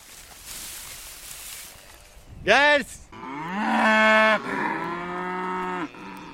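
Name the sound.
highland cattle mooing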